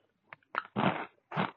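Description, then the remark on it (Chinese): Crunching on french fries: a faint click, then three crisp, crackly bites at irregular intervals, the middle one longest and loudest, with no talking. “这个小薯条啊，真的是巨好吃啊！”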